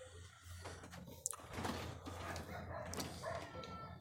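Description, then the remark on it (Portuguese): Dogs bark outdoors in a rural area, a few scattered barks and yips rising faintly over a steady low background hum. “eu vou ter que tacar alguma coisa naqueles cachorro, cara.”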